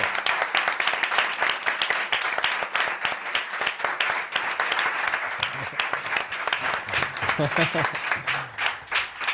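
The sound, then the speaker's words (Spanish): A studio audience applauds steadily throughout to welcome guests for the last section of a Spanish-language programme, a dense wash of many hands clapping at an even, sustained level, with faint voices and a few cheers mixed in underneath. “Un aplauso.”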